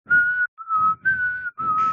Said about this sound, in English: if you're if you're um you know passively whistling along is actually tuneless sort of up down up down, then you might well be detected as a siren or a fire alarm or something.